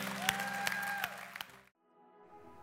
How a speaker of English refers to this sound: Let's give him a shout of praise.